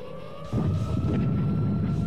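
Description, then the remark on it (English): Rolling thunder during Hurricane Hilary in Cabo San Lucas, Mexico, bursts in abruptly after a short pause, a loud, deep, sustained rumble that holds to the end, with a faint steady tone humming underneath throughout. “Thunder rolls.”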